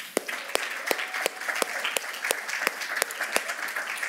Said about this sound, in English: Can we give them a big hand clap?